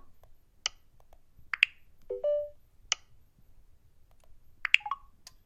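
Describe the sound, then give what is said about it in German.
A device controlled through the Blinzeln app clicks open after a double tap, with a few sharp, crisp clacks spread out over several seconds, along with a short low electronic beep and a brief chirp, over a faint background hum. “Ich mache einen Doppeltipp und dann müsste es eigentlich klacken.”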